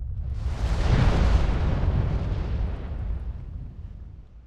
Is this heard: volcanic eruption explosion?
yes